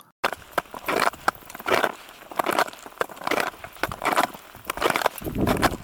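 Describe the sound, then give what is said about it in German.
Crunching footsteps on hard, bare blue glacier ice, a person walking out of an airplane that has landed on the ice, a steady walking rhythm of about six or seven crisp, gritty steps, fairly loud, with no voices. “Und über dieses Eis bist du dann auch geschritten, natürlich, aus dem Flugzeug heraus. Äh, und das klingt so.”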